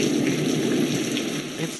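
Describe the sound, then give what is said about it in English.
Steady rain falls continuously on a summer's day in Manchester, a dense even patter with no pauses, moderately loud and filling the whole moment without any voices. “For a well earned bit of rest, just listen to this beautiful weather”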